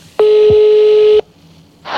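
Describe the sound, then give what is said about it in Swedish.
A single steady telephone ringing tone sounds for about a second, loud, as a phone call is placed to Kjell Bergqvist, followed by quiet line hiss and a short burst of noise at the end; no one speaks. “Men vi gör så här, vi ringer Kjelle så får han berätta mer.”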